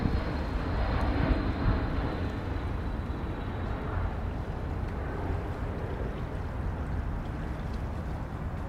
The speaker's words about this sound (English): As an airplane soars overhead to land at the nearby airport.